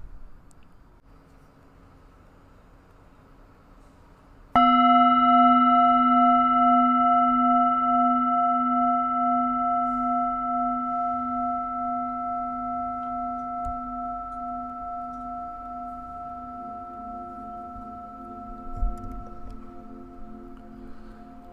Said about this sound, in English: So, whether you want to save this podcast for later or you find yourself in a comfortable position already, we will begin at the sound of the bell.